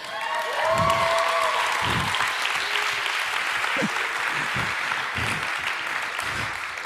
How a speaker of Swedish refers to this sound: har vi han pannkaksgeneralen som blivit känd i hela Sverige nu, trummisen, var är du någonstans? Ställ dig upp, en stor applåd.